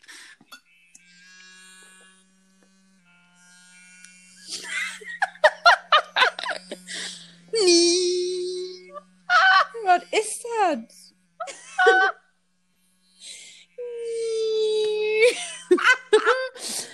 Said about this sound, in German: Dann, das hört sich an, als würdest du mit der Zahnbürste auf den Nürburgring fahren.